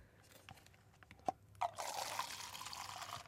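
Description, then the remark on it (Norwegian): Wine being poured into a glass: a few sharp clinks of glass, then a steady gurgling stream that runs continuously to the end, with no talking. “Um, jeg innser nå også at jeg heller altfor mye i glasset til dere alle sammen.”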